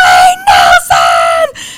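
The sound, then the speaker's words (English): A woman screams a name in shock after taking a pregnancy test, a loud, high-pitched, drawn-out cry broken into a few sustained bursts, with no other sounds around it. “and I just screamed his you were name”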